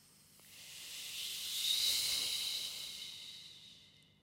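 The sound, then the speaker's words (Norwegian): A voice imitates someone on a sledge riding down a sledding hill past the microphone, a breathy, hissing whoosh that swells as it draws close to the microphone, peaks, then fades away over about four seconds. “En eh, kjører forbi med akebrett, så du får liksom lyden av at de kommer nært mikrofonen, og så forsvinner de igjen.”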